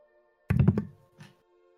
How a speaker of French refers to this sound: C'est moi qui jette des dés